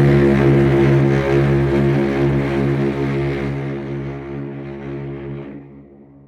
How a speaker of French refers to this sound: mais on a entendu la grosse sirène d'un énorme paquebot. Du coup, priorité au navire le plus gros, toujours, au plus fort tirant d'eau, exactement.